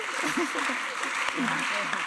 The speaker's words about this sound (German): herzlichen Applaus!